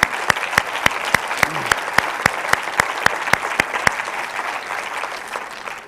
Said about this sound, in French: Je pense que ça mérite un bel applaudissement.